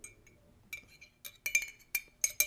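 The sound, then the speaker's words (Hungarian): A metal spoon clinks repeatedly against a porcelain cup of coffee as the drinker sips from it, several bright, ringing taps at irregular intervals, moderately loud, with no talking. “Kiveszem a fémkanalat a porcelán poharamból, amiben a kávém van, akkor nem fog itt csörögni.”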